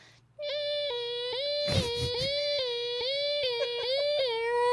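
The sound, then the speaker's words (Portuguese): A voice imitates a siren with a high, sustained wailing tone, fairly loud, holding almost steadily for about four seconds with small dips and brief breaks in pitch. “É, sirene até eu faço bastante hoje em dia, tipo.”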